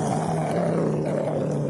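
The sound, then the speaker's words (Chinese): A dog's angry growl at mice, a steady, low, rumbling snarl that holds at an even loudness without a break for under two seconds, with no voices alongside it. “怒目圆睁，嘴巴张开，露出尖利的牙齿，嗓子里发出呜呜的愤怒声。”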